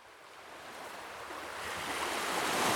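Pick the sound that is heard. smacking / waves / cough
waves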